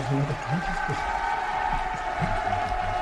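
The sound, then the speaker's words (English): A crowd cheers at the Dublin South election count as Eithne Fitzgerald is announced elected with a large surplus on the first count, a dense, steady roar of many voices that stays loud for about three seconds, with individual shouts rising out of the din. “Big cheer for Eithne Fitzgerald, elected with a massive surplus in the first count.”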